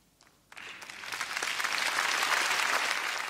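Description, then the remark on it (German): A standing ovation for Greta after her speech on the climate crisis: after a brief quiet moment, a large audience bursts into dense clapping that swells and holds at a loud, steady roar with no voices standing out. “Das Publikum ist begeistert. Standing Ovations für Greta und das ein oder andere feuchte Auge.”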